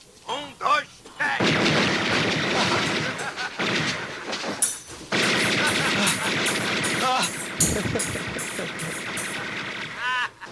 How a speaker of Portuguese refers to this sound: Menino, não mente pra mim. Eu ouvi barulho de tiro. É só o filme, ué.